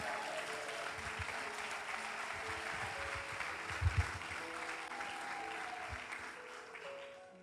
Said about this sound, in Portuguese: Aleluia! Aplauda o rei, queridos.